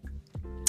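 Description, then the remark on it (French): A sharp switch click is followed by the low, steady hum of an electric fan motor starting up, with a second bright click near the end. “savez quoi, je vais allumer le ventilateur, sinon je vais mourir.”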